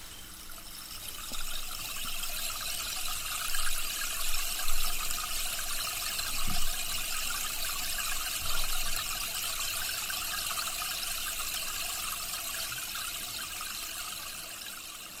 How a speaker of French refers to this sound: avec par exemple les fameux bâtons de pluie, ou ici un arbre de pluie, qui est un bâton creusé dans lequel s'écoulent des graines, imitant ainsi le son de la pluie qui tombe.